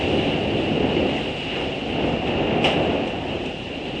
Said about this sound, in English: The sound you may hear outside us is one of the biggest typhoons to pass through this part of Japan in recent memory.